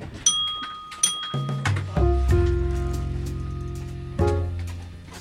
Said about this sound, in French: Le, bruit là, le feeding, c'est pour dire que les portes sont fermées et verrouillées.